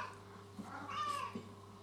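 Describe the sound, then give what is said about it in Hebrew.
A cat named Chezi lets out one drawn-out meow that rises and falls, at modest volume over a faint steady hum, with no talking. “הנה, אפילו אתם שומעים את חזי יד ראשונה. ממש בלייב.”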